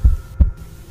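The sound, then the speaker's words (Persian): A heartbeat sound effect: two deep, thudding low pulses about a third of a second apart, fairly loud, with a faint hum lingering between and after the beats; a person's own heartbeat while sitting on a grave in a cemetery on a dark, moonless night. “وقتی دیگر نمی توانستم قدم بزنم و زانوهایم ناتوان شده بود روی یکی از قبرها نشستم می توانستم صدای تپش قلبم را بشنوم”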